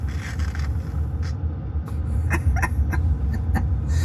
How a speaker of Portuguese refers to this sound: No carro, o senador está abrindo o envelope.